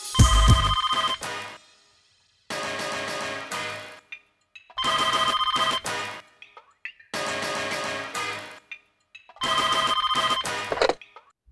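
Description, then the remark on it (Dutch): A landline telephone rings five times in a steady pattern, each ring a bright, buzzy burst of about one and a half seconds separated by short silences, loud with no talking. “En ehm, dan belden ze naar die vaste lijn.”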